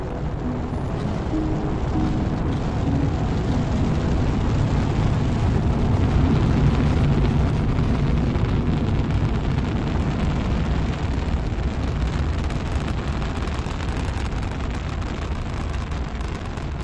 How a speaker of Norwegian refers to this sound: et beinhardt treningsprogram og utallige forberedelser ledet av den briljante russiske rakettforskeren Sergej Koroljov, lette til slutt raketten med Vostok 1-fartøyet fra Baikonur-kosmodromen i Kasakhstan den 12. april 1961. Klokken 09.07 Moskva-tid.